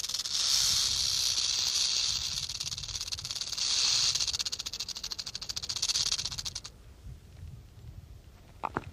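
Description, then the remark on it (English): A rattlesnake's rattle buzzes as a steady, high dry hiss for several seconds, swelling and easing in waves before cutting off into quiet, with a brief click at the end. “We found a small lake, some badlands, and a rattlesnake.”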